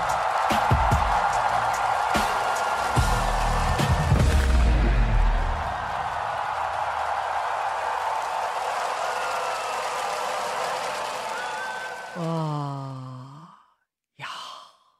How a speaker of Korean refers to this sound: 여러분, 지난 주말에 서울 고척 스카이돔이 들썩였습니다. 같은 시간에 광화문 광장과 영화관에서도 뜨거운 함성이 울려 퍼졌습니다. 이렇게요.